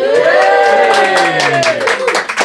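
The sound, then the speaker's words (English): A live studio audience cheers and claps loudly and continuously, with whooping voices rising over dense, steady applause that carries through the whole stretch. “Can you give us a bit of a, a cheer to start with just to prove that there is a studio audience here?”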